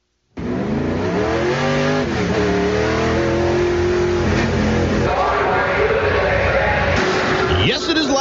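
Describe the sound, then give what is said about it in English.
Loud engine revving with rising and falling pitch sweeps, like race cars accelerating at Ocean Speedway in Watsonville, continuing steadily for several seconds with a brief squealing glide near the end. “Take the family, take the friends, take the entire neighborhood to the rip roaring racing fun at Ocean Speedway in Watsonville.”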